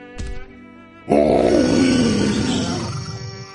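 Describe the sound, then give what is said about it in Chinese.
A short grunt, then a loud, long, rumbling roar from a Tyrannosaurus calling out for an Elasmosaurus, holding for about two seconds before fading. No one speaks. “霸王龙大声吼叫，呼唤薄片龙，但是薄片龙没有出来。”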